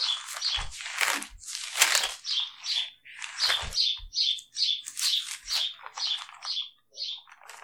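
Pet birds chirp and squawk almost nonstop, a busy chatter of bright, overlapping calls with occasional low thumps or flutters, moderately loud, with no one speaking.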